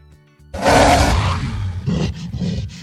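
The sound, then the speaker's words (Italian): A giant ape roars, a loud, rumbling bellow lasting over a second, followed by several shorter grunting bursts in quick succession. No one speaks. “Ma sentiamo la scimmietta che c'è questa sera.”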